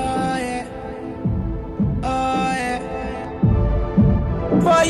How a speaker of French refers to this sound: Eh ben, je propose qu'on s'écoute le premier morceau euh, de mes favoris de la discographie